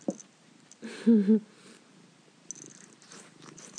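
A cat purrs, a low rumbling burst that swells briefly before fading into quieter breathy rustling and soft background noise.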